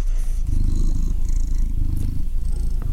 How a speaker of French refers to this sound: Coucou le ronron. Je pense que c'est. C'est un ronron C'est un ronron de miaou Ah, de Kamaou. Gros rouquin. Euh, t'as. Eh ben, ça ronron.